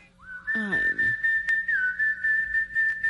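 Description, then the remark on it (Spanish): A person whistles an imitation of a dove's song: one long, steady, fairly high note held for about three seconds, dipping briefly in pitch midway, over faint background sound. “Canto la paloma. La sinfonía de la paloma.”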